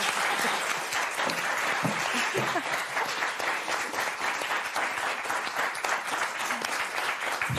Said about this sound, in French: Ça s'applaudit.